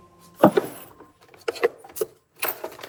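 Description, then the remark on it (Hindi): Keys jangle in a chest drawer as it is opened and the keys are found, in several short, bright metallic bursts, moderately loud, with brief pauses between shakes and no voices. “वो बगल वाले चेस्ट ड्रॉर को खोलता है और चाबियां मिल जाती हैं”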